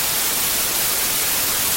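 A steady hiss of white noise static fills the whole stretch, loud and constant with no talking, like an untuned radio or TV between channels.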